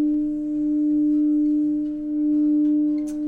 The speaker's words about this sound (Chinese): 我们可以听听看水晶钵的声音吗？ 嗯，可以。现在是我在敲的，现在我会在磨。 现在是要用磨水晶钵。